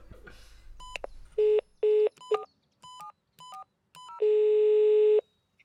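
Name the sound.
telephone dialing tones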